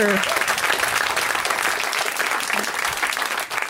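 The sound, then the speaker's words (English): Steady, sustained audience applause at the start of a stand-up comedy show, a dense wash of many hands clapping at even loudness throughout, with no voices rising above it. “Very yeah, you can clap about that.”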